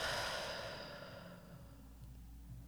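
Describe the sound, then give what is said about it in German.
A single long, breathy exhale after a deep breath into the belly during a relaxation breathing exercise, starting strong and gradually fading into quiet, like a slow deliberate sigh. “Dafür atmen wir tief in unseren Bauch ein und wieder aus.”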